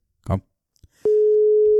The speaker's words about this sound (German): So, es klingelt.